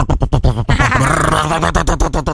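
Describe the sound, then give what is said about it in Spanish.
A loud motorcycle engine sputters in rapid bursts, then revs into a sustained, rough roar before breaking back into choppy pulses as it is throttled. “Bueno, te venimos diciendo que vos tenés que cambiar esa motocicleta que prácticamente molestás a todos tus vecinos porque suena.”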